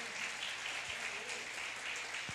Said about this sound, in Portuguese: Você pode aplaudir o seu pai com bastante força.